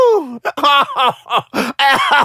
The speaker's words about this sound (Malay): Batuk-batuk.